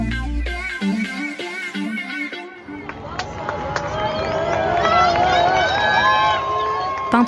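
A few seconds of low, tonal music give way to a large outdoor crowd in front of the city hospital in Marrakech at 5 pm, cheering a huge motorcade carrying King Mohammed VI, with shouts and high whistles rising over a dense, continuous roar.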